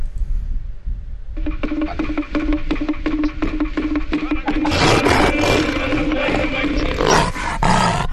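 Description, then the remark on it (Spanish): A big cat's roar from Rufus, the cat that announces the time, marking six o'clock. It is deep and rumbling, builds in steady throaty pulses and swells to a louder, rougher burst in the second half. No one speaks. “Entonces tenemos a Rufus aquí esperando, eh, que es nuestro gato que nos da la hora.”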